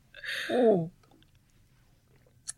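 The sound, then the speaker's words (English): A single wet slurping sip of champagne from a glass, lasting under a second, with airy hiss and a gulp-like tone, followed by near silence and a faint tick near the end. “You want to take a sip?”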